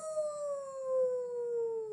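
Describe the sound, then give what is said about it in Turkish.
A single long vocal howl imitating a wolf, held steadily for about two seconds and slowly sliding down in pitch, clear with a faint hum beneath. “diye ulamaya başlamış bizim kurt.”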